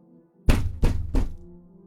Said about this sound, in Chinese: 空无一人的大门又响起了渗人的敲门声，不是砸门声。他好似听到了我的谩骂，气急败坏的用力的拍打着大门。